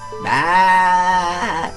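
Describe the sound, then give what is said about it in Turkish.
A single long, nasal goat-like bleat from outside, loud, held steady for over a second before dipping in pitch at the end; it sounds like a person imitating a male goat. “Dışarıdaki keçi sesinden anladığım kadarıyla bir erkek keçi.”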